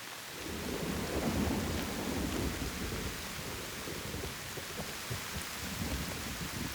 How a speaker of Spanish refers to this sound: La temperatura es cálida, pero poco a poco comienzas a sentir frío, hasta que la lluvia comienza a hacerse incontrolable.